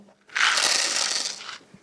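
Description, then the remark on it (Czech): Coffee beans rattle and shake in a steady, dense clatter lasting just over a second, a bright crisp hiss of many small hard pieces, then it stops abruptly. “Tak to jsou kávová zrna.”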